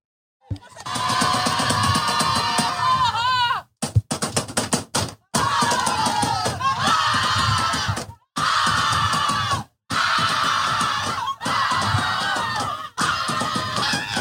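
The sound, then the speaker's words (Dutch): A loud football stadium crowd roars and cheers for PSG after they knock Olympique Lyon out of the Champions League, a dense wall of voices broken by several abrupt cuts into short silences. “Voor degenen die zich afvragen wat dit is, dit is het gejuich van PSG nadat ze Olympique Lyon uit de Champions League knallen.”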